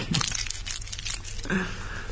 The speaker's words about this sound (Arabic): السينما انت جاي تبي تبطل قرطاس وقاعد طالع فيلم ولا واحد مثلا وراك قاعد يبطل قرطاس ولا صاحبك قاعد يبطل قرطاس اعلى من صوت الفيلم يصير عرفت؟